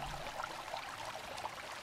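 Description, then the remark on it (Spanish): Water runs steadily with a soft, continuous rushing hiss, fairly quiet and unbroken for the whole moment, with no voices over it. “Oye, yo, ya, me estoy haciendo pipí encima con el agua.”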